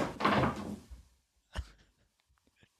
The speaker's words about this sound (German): Katzen. Sämtliche Hintergrundgeräusche, die ihr hier hört, sind übrigens Katzengeräusche. Randale.